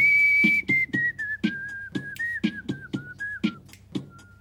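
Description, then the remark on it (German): A thin, whistle-like melody of the song drifts gradually downward over a steady thumping beat, repeating about twice per second. It is fairly loud and clear, with no talking. “Ende nochmal die ….”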